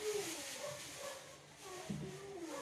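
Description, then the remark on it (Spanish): Several dogs whimper and let out short yips over a steady hiss, their high, wavering whines overlapping throughout the short stretch. “Yo no puedo tener siete perros acá, ni sé cómo los llegué a tener.”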